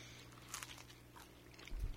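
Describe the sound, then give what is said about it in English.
A crunching bite into a cinnamon fritter with a crunchy glaze, served not warm, followed by soft chewing, a few brittle crackles up front and a louder, muffled chomp near the end, with no talking. “Get the chewing.”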